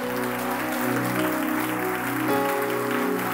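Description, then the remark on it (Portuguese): A church audience applauds the King of Glory in a steady, dense wash of clapping that holds for a few seconds, with sustained keyboard chords ringing underneath and no one talking. “Quantos podem aplaudir ao Rei da Glória por isso?”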